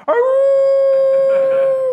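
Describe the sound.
A single loud, sustained dog howl, holding one steady mournful pitch for about two seconds before trailing off, with no talking.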